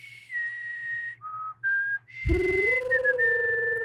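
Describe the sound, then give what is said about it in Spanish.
A short whistled melody, a creature's song, of a few clear, held notes that step down and back up in pitch, then fuller, louder sound swells in beneath the continuing whistle. “De hecho, lo reconoce por el chiflido, por la canción.”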